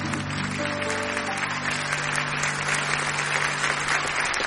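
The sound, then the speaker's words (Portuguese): Sustained applause from an audience, a dense steady clatter of many hands clapping with a low sustained tone humming underneath throughout. “A salva de palmas”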